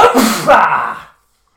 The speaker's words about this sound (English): Sounded like you sneezed while trying to say "opa."